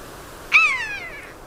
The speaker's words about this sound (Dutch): En dan dit. Buizerd. Dat hij dat zo onmiddellijk herkent.